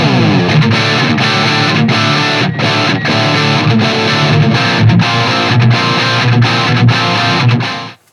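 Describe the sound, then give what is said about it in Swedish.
A heavily distorted electric guitar plays a steady, chugging riff through an overdriven JCM 800 amp head, recorded with a Shure microphone, for about eight seconds, thick and loud with crisp pick attacks, then cuts off abruptly. “Så här låter Shure-micken. Eh, vilken topp då? På JCM 800.”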